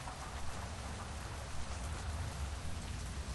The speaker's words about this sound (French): Il pleut beaucoup trop fort.